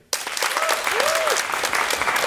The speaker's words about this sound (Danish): Lad os lige lægge den øh, vejledende ud til en, til en applausafstemning her i gymnasiet. Hvor mange af jer øh, vil klappe af ordet klimaangst? Tak for det, og hvor mange af jer vil klappe af ordet gensyn?